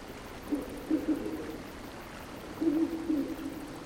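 A waterfall's steady rushing hiss fills the scene without pause, while two low, hoot-like calls rise briefly above it, one early and one near the end.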